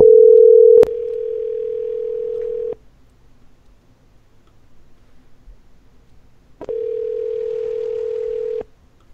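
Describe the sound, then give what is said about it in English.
A phone line's ringback tone from an outgoing call placed to call a caller back: two steady, fairly loud two-second tones separated by about four seconds of near silence, with a brief click at the start. “I'm going to try calling Jamie back.”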